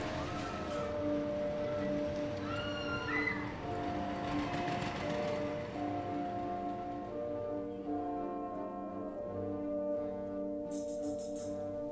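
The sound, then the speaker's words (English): A subway train rumbles steadily along the rails, with metallic wheel squeals rising briefly early on over a constant droning hum. The sound is fairly loud throughout, with no voices. “By 1929, the old Coney Island railways were upgraded to be part of the New York City subway system.”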